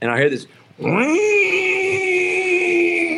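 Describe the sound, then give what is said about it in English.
A voice imitates a Nissan truck stuck in second gear, its engine over-revving at about seven thousand RPM after a drive from Kentucky. After a short spoken phrase, a loud droning whine sweeps upward in pitch, then holds a steady, strained high drone to the end. “And he had driven from Kentucky, like two and a half, three hour drive, and he couldn't get his truck out of second gear. so he was driving like seven thousand RPMs for 150 miles.”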